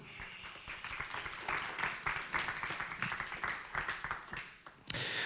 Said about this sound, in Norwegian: Du kan komme opp hit. Og gjerne litt applaus til henne òg.